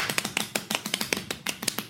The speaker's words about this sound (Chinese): 所以先感谢各位一直在听的这些观众，掌声鼓励一下。